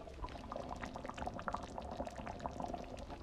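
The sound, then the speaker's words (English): A pot of thick chili cooking on the stove in a kitchen bubbles steadily, a dense, continuous pop and gurgle of small bursts, recorded on a phone, with no voices. “And it's because I'm stood around in my kitchen next to a chili that I'm cooking.”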